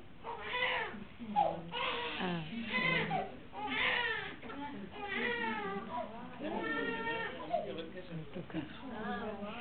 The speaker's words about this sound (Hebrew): הבעיה לא של התינוקת שהיא בוכה עם כל כזה, הבעיה שלנו שאין לנו יכולת... אנחנו רוצים שינוי, רוצים פתרון, רוצים... מה אכפת לנו? היא לא בוכה ממצוקה. היא מביעה את המציאות שלה, זהו. חמודה.